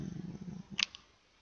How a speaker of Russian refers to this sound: У меня просто кот рядом.